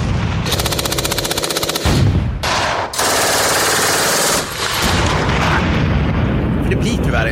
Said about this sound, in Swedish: Och så, så, och sen, just det, lägg in, nu lägger vi in lite kulsprutor och granatexplosioner.